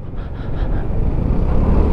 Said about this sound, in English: All right, looks like we found some traffic down here, so I'm going to take you through that.